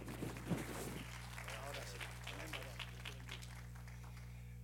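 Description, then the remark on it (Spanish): A church audience breaks into applause to welcome a pastor, a dense wash of clapping that swells briefly at first and then continues steadily over a low steady hum, with voices murmuring underneath. “Así que un aplauso recibimos, amén.”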